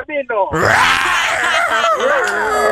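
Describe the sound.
After a couple of short vocal sounds, a person lets out a loud, sustained, raspy roar for about two seconds, imitating a lion.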